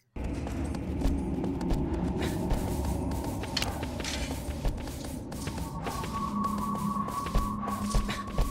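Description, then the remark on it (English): The horse Agro gallops steadily in a video game with a rapid, continuous rhythm of hoofbeats, set against a low, constant rush of outdoor wind in a nature devoid of animal life. There is no talking or music. “Just the ambient sounds of a nature devoid of animal life and Agro galloping.”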